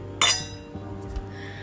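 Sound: champagne glasses clinking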